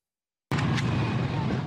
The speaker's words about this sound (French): ces images, filmées par un islamiste du Hamas, on peut voir l'individu prendre d'assaut le kibbutz de Soufa, situé près de la bande de Gaza. Les terroristes du Hamas tirent des coups de feu en direction des habitations.